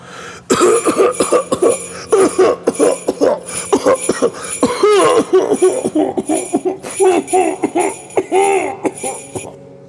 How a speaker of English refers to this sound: How long have you had that cough?